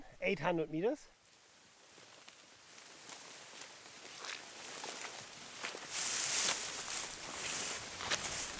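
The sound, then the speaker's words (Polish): A brief voice at the start gives way to steady swishing and crackling as someone pushes on foot through tall grasses and high plants nearly as tall as the walker, the rustling growing louder and denser toward the end. “No, tutaj się przedzieramy przez takie, takie trawy, takie wysokie rośliny, nie wiem nawet jak one się nazywają.”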